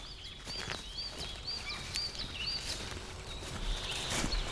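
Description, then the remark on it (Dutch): Horses walk slowly around a care and activity farm estate in Strijen, their hooves clip-clopping in an uneven, unhurried rhythm, while birds chirp and tweet steadily in the background outdoors. “Er lopen paarden rond op landgoed De Pierdegaard in Strijen.”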